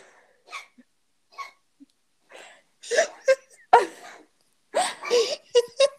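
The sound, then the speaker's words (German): A cat on a desk makes a series of irregular gagging and retching sounds, short throaty heaves that grow louder and more broken toward the end, with no talking. “Ja, ich muss noch kurz gucken, ob sie jetzt wirklich kotzt oder ob sie nur würgen muss.”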